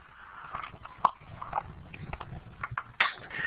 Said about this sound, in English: and in the meantime, I'm drinking some iced tea.